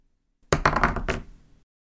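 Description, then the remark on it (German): A die, rolled to pick which questions are asked, tumbles across a table and lands on a one, making a quick run of four or five hard clattering knocks that blur together and fade out over about a second. No one speaks. “Und ich würde sagen, ich lasse den Würfel einfach mal rollen.”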